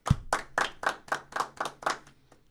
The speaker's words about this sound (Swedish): Är det applåd? Ja. Ja, veckans applåd.